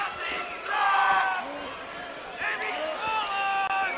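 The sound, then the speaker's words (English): A loud crowd of drunk wrestling fans yelling and chanting at a wrestling pay-per-view event, many raised voices overlapping in sustained shouts with surges around the first and last seconds. “There was a lot of drunk fans yelling at this point.”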